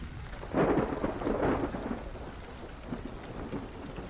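rain falling with thunder

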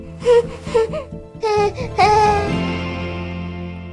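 baby crying

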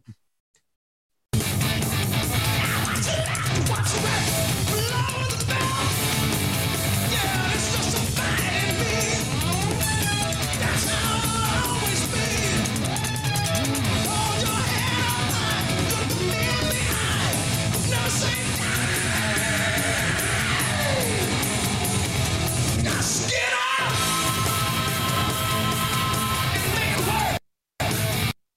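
screamed vocals

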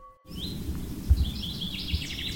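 birds singing

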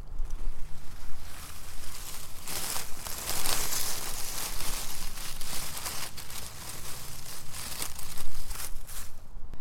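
leaves rustling underfoot

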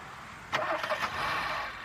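car engine starting

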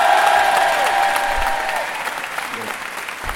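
audience applause and cheering

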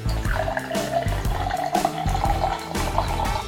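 beer being poured

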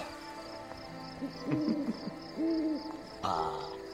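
stomach gurgling

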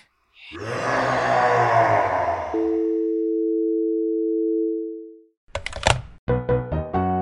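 telephone tone

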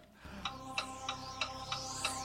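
clock ticking

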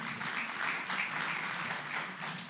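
audience applauding

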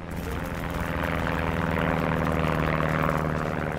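firefighting aircraft flying overhead

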